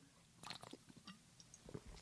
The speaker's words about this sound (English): Excuse me, I'm sipping a little water here.